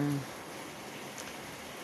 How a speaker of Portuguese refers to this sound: e chove, e troveja, e venta hoje por aqui.